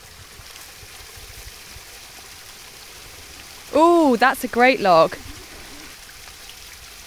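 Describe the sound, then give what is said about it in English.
A small woodland waterfall flows with a steady, continuous rushing hiss at moderate volume, while a person speaks briefly over it partway through. “I follow my mum past a small waterfall.”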